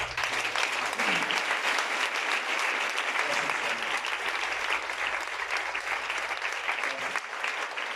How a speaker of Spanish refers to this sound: En el nombre de Jesús. Amén. Dame un aplauso Señor.